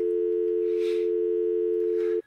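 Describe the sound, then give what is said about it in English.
A steady, loud telephone busy tone drones on unbroken after a hang-up for about two seconds, then cuts off abruptly, with a couple of faint hissy rustles behind it. “It's just like a, a, long pause, but then he just makes things better and hangs up.”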